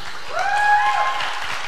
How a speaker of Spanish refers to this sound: Un aplauso